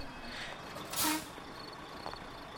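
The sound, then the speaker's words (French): A short, sharp hiss of air brakes as a truck with its headlights on comes to a stop and parks a few metres from a group of people, heard faintly over a quiet, steady background with no talking. “Des phares apportant un peu de lumière à la scène apparurent et le camion de tout à l'heure stationna à quelques mètres du groupe.”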